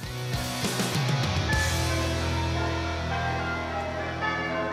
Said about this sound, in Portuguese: Os sinos espalham alegria, pensaram as gêmeas. E não só, porque também podem espalhar mistérios.